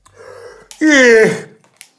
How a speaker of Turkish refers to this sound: Hayır abi, Öksürük tıksırıkla açtık birdenbire yayınımızı. Bir rahatsızlığım nüksetti diyelim abi.